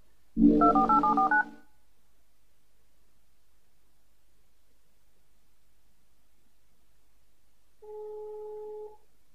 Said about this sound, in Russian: Ты хочешь, чтобы твоего собеседника да, тоже да, было да, слышно да, в прямом эфире? В эфире, mm да, был, был слышен телефон.